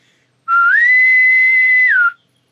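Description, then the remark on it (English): A single loud whistled imitation of a naval boarding pipe, used to call people when dinner is ready: the tone slides up, holds a long steady high note, then drops off at the end. No talking. “which is like the sound they make when someone boards a ship.”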